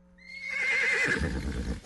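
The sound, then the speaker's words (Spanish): A horse neighs once, a loud whinny that rises in pitch and then wavers and trails off over a couple of seconds, with no voices. “Tenemos los más espectaculares shows de caballos y otros animales para que disfrutes de un día de mucha diversión.”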